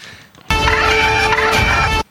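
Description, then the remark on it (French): A loud porg creature squawk holds for about a second and a half as one shrill, warbling, bird-like cry with no talking around it. “Ah, c'est la petite. Euh, le ah, pog, là, je sais pas La euh, petite crotte, là”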